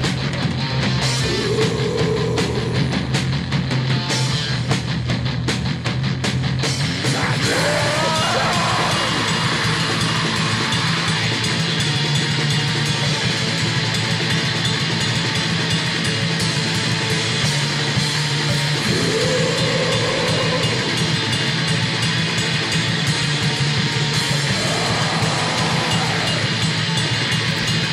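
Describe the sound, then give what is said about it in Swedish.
A loud, dense thrash metal song with heavy, rapid drumming pounding under thick distorted guitars, continuous for the whole stretch with no talking. “Nu blir det lite eh, …-tugg.”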